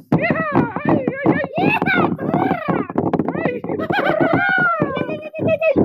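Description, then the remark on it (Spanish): Rapid, steady clip-clop of the galloping horses of outlaws, loud, apparently imitated by a voice, with drawn-out voiced cries running over the rhythmic beats throughout. “Y entonces se escuchó el ruido del galope de los forajidos.”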